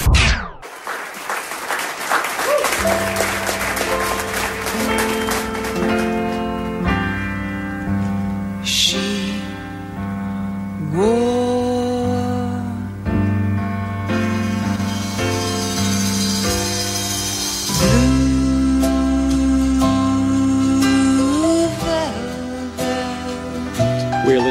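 A woman sings a slow, sustained ballad melody with held, wavering notes over a full, lush instrumental backing, playing steadily and fairly loud throughout.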